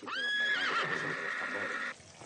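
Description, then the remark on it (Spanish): A horse lets out one loud, high-pitched whinny that quavers and wavers for about two seconds before cutting off, with no voices over it. “Elena está junto a un caballo hablando con un hombre.”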